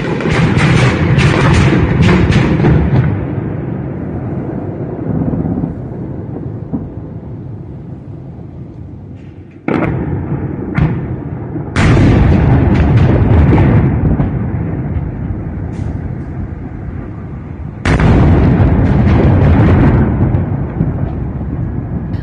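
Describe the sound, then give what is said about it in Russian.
Heavy booming blasts and air defense fire roll over Kyiv during an attack with drones and cruise and likely ballistic missiles, with several sharp, loud bursts standing out against a continuous rumbling din. No voices are heard. “Иностранные корреспонденты, находящиеся в Киеве, сообщали о крайне интенсивной работе БВО. Послушайте, как это звучало для киевлян.”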